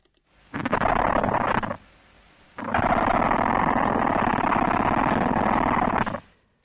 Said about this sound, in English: So that's it scraping the back end of the abdomen against itself. So that's the queen.